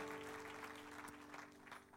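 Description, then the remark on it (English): A church audience claps together in steady, sustained applause during a morning service, many hands clapping. A low sustained tone hums underneath, and there is no talking. “Give Lord one more hand clap and you may be seated this morning.”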